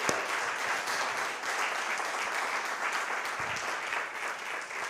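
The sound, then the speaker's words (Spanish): An audience applauds God during a sermon, a dense wash of many hands clapping at once that holds at an even level throughout, with no speech over it. “Vamos a darle un aplauso a Dios.”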